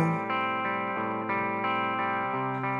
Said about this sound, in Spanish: Bueno, vamos a escuchar otro tema de esta banda antes de despedirnos.